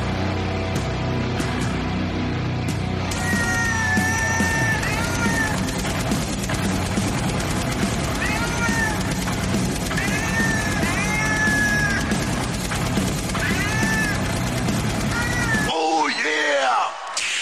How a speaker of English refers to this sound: Yeah, that was just uh, it was like basically heavy metal music, and they just inserted meows.